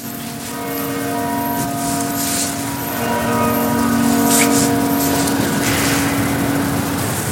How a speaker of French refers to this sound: voilà, fallait laisser euh, s'exprimer euh, les cloches quand même.